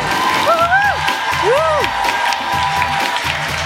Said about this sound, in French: Applaudissements, eh s'il vous plaît.